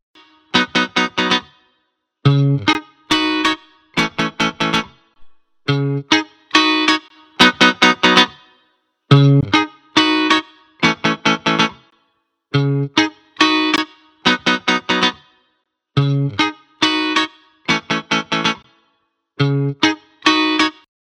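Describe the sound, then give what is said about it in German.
A short, punchy musical riff loops over and over, each pass run through a different preset of an audio saturation plugin that adds gritty, slightly distorted colour. The playing is loud, with no talking. “Sound finde ich auch schön und auch hier ballern wir da mal ein paar Presets an.”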